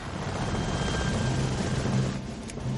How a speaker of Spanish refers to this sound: Los helicópteros toman posiciones de tiro.